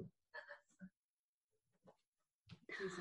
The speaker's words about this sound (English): hang on my dog yeah yeah yeah yeah he's saying something